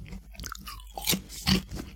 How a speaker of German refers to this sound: Still, still, sein heißt auch nicht zu kauen und nicht zu schmatzen. Deswegen muss ich erstmal so Chips aufessen.